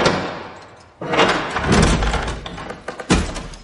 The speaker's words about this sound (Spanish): Escucha atento. Se incorpora. La puerta se abre.